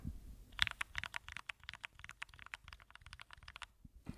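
Rapid typing on a loud computer keyboard, a steady flurry of sharp clicks for several seconds before it stops. No one speaks.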